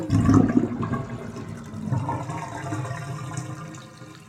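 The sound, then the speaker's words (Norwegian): Water gushes from a faucet, loudest in the first half-second, then settles into a steady rushing flow that fades slightly toward the end, with no voices. “Vi tar det som en selvfølge at det kommer noe ut når vi åpner krana på kjøkkenet eller på badet.”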